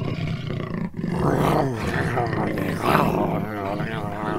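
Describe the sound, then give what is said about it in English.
A man's voice imitates a lion's roar, a loud, drawn-out growling bellow with wavering pitch, continuous for several seconds with a brief break near the start. “That was like the lion from the Wizard of Oz there.”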